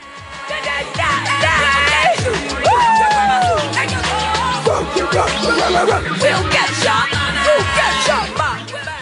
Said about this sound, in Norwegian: Og mens publikum danser og koser seg, går sangen mot slutten.